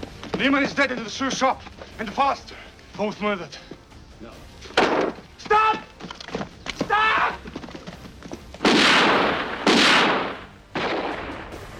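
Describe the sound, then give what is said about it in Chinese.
Raised, shouting voices give way to a few loud, noisy gunfire blasts, each with a harsh lingering tail, heard on their own near the end. “这边中尉几个人听到枪声，知道事情已经败露，一不做二不休，直接将行动计划全盘托出，呼吁大家赶紧逃命。”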